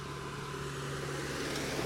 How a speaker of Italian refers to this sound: Eh, sta passando un trattore, eh? Per cui se c'è casino sta passando un trattore.